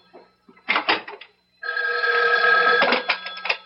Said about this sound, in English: Excuse me, that's my phone.